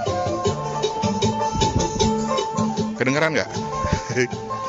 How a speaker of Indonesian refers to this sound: Itu suara tukang ojek di dekat apartemen. Dia mutar musik kenceng-kenceng dari speaker yang tersambung ke HP-nya.